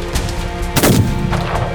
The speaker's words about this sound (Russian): Да, он в воздух выстрелил